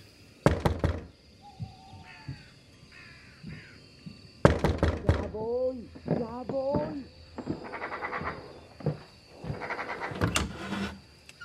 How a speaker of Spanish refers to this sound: Cuando llegó a la puerta, se armó de valor y la golpeó con decisión.